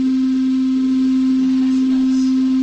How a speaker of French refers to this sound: Nous allons passer maintenant au son grave.